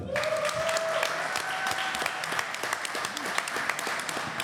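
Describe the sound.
An audience breaks into steady, dense applause, many hands clapping at once in a continuous sustained roar, with a faint voice or tone briefly audible underneath at the start.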